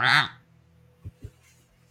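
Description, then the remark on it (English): A voice imitates a raven's caw with one loud, harsh, nasal squawk, followed by a few soft low knocks and breaths. “The raven looks at you, cocking its head, and caws”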